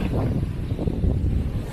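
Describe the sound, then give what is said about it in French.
Wind rushes across a boat deck at sunset in a steady, low roaring rumble with gusty fluctuations buffeting the microphone. No voices are heard. “le pont du bateau.”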